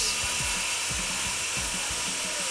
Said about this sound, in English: They'll use power tools